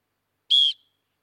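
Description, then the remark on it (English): A single short, shrill whistle blast, loud, holding one steady high pitch for about a quarter second before cutting off, with silence around it, blown to get the audience's attention. “I need some involvement, and first I'm gonna put a bit of whistle.”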